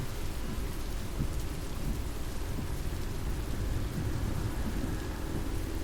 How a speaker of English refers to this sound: Oh, listen to the cars passing and the sound of the windscreen wipers it's even making me feel sleepy. Ugh. The sound of the cars and then the rain outside, cars flying past, and now the windscreen wipers.